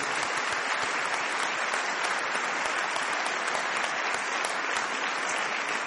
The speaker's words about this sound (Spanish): Démosle un aplauso por favor a todos estos líderes.